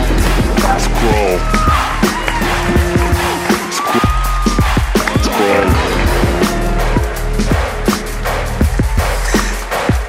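Loud, sustained audience applause fills the whole stretch, dense clapping mixed with whoops and cheering voices, close and steady without any pause.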